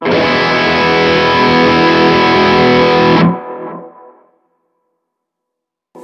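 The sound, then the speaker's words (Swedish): A heavily distorted electric guitar chord played through an amp capture rings out loud and full for about three seconds, then is cut off, leaving a short fading tail before silence and a brief new attack at the end. “Kan du, om vi tar ett ackord bara. Här är alltså capture-historien.”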